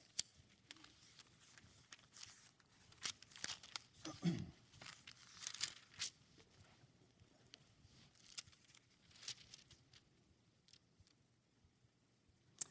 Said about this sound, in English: Flip in your Bibles to Matthew chapter 6. I love hearing the turning of pages. It's a great sound. Doesn't sound as good on a phone. You can't hear it when you just type it into your phone.